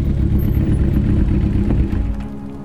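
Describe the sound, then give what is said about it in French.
A red motorcycle carrying two men in helmets and dark glasses enters a Shell petrol station. Its engine rumbles loudly in a steady low throbbing drone that eases off slightly toward the end as the bike slows. No one speaks. “une moto rouge entre, elle aussi, dans la station essence.”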